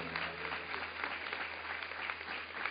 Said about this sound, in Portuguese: Aplaude a Deus, aplaude em nome de Jesus. Aplaude mesmo.